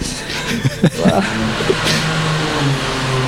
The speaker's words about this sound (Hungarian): Nem tudom, mit fúrnak most.